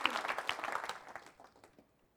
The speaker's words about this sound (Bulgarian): С други думи, да, можеш да ръкопляскаш за това. Обаче, понеже не помолих да ръкопляскаш, можеш да ръкопляскаш както трябва.